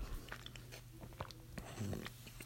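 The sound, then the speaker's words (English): Close-up chewing and crunching of food, with repeated sharp, crackly bites and moist mouth sounds right against the microphone, steady and without any talking. “I don't want to chew on the mic though. Because some people get annoyed when you chew on the mic.”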